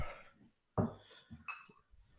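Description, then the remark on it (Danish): A Jamaican drink from a bottle is poured and handled at a table: a solid knock against the surface, then glasses clink together with a brief, bright ringing chime. Fairly quiet, with no clear talking. “Det var en ordentlig skænk, du fik der der”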